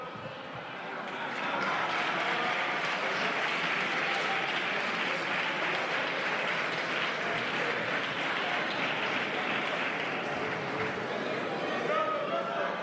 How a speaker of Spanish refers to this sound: Fíjate en cómo responde, cómo reacciona a las risas y los aplausos de los diputados.